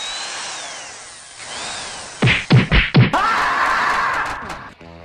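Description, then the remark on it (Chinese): A neighbour's electric drill during home renovation whines with a wavering pitch, then three heavy thuds land in quick succession before a loud, steady grinding drill noise takes over to the end. No one speaks. “可你一直走下去的，只有邻居家的装修和电钻。啊！别钻了！”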